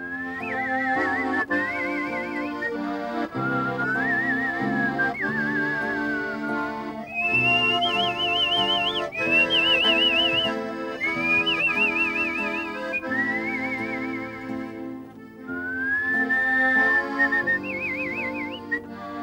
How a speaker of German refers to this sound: das dann auch so gut wie bei der berühmten österreichischen Kunstpfeiferin Jeanette Baroness Lipp von Lipstrill, so nennt sie sich. Sie hat das labiale Pfeifen perfektioniert, die hohen Töne pfeift sie beim Einatmen und die tiefen Töne beim Ausatmen.